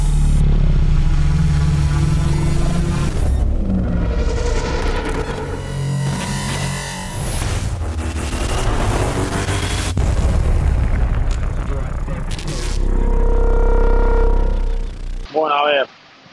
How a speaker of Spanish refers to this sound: Estamos aquí, parada de autobuses, centro de prensa. Son las 2 y cuarto de la mañana en Doha, Qatar.